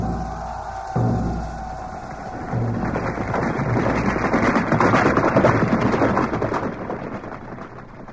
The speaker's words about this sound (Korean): 북소리가 울리면 김영대 출격하라!